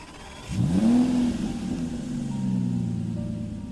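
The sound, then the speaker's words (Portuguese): A car engine roars to life and revs, its pitch sweeping upward before settling into a steady drone as the vehicle pulls away, loud with no talking. “Tu roubou o carro, fez a ligação direta, começou a dirigir.”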